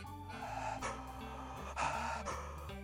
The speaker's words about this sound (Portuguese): E você sopra e após acabar o ar soprado, você troca a respiração rapidamente, sentindo a troca na barriga. Como eu fiz isso sem gaita? Mais ou menos aqui, ó. Né, então eu troco a respiração aqui dentro, na barriga, ó.